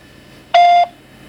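A single loud electronic beep from a voicemail answering machine, a short steady tone lasting about a third of a second, standing alone against a quiet background with no talking.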